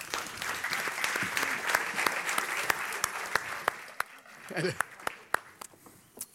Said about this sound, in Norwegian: Og i tillegg en stor applaus til